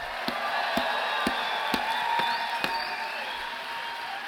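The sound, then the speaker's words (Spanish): A church audience gives a shout of glory, shouting and cheering in praise, a dense roar of voices punctuated by sharp rhythmic claps about twice a second and a few rising high-pitched whoops. “Si yo fuera tú le diera un grito de gloria.”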